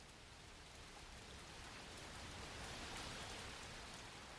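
Steady rain falls continuously, a soft, even hiss of drops pattering on a surface with no pauses or voices, holding a constant level throughout.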